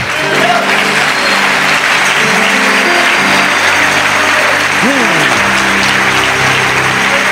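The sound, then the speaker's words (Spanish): An audience claps loudly and steadily for several seconds as applause to God, a dense unbroken wash of applause over sustained keyboard-like chords, with one brief sliding tone midway. “Mm, dele un aplauso a Dios fuerte.”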